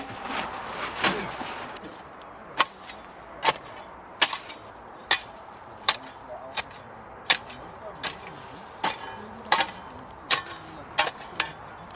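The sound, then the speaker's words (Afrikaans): A red fertilizer injector on a drip irrigation line, feeding fertilizer through the system, ticks steadily, sharp clicks repeating roughly every second over a low mechanical hum, with a brief murmur of background noise at the start. “Ehm, um, sy noem naam is 'n varkie. So, so die kunsmis, ons het 'n drupstelsel hier so, so is dit die kunsmis deur hom.”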